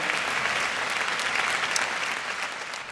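A crowd applauds steadily, dense clapping from many hands at a fairly loud level, with no talking over it, tapering only slightly toward the end.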